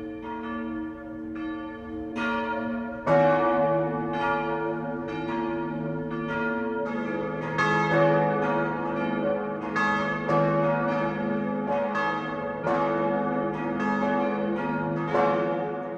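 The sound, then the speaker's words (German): Church bells of the Catholic town parish church Maria Himmelfahrt in Bad Königshofen, Lower Franconia, Germany, peal at 12 noon, several bells striking in an overlapping, irregular rhythm with rich, lingering metallic tones that build into a steady, fairly loud wash of ringing. No voices are heard. “Das Mittagsläuten kommt heute aus Bad Königshofen in Unterfranken.”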